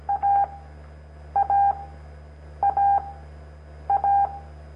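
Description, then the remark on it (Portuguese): A Morse code CW tone beeps out the same short-then-long pattern four times at an even pace, clear, over a low steady hum with no voices. “Uh, eu, eu, já vi que muita gente que tem dificuldade de aprender a, o som do CW é porque ele tenta contar se foi foi de, foi da.”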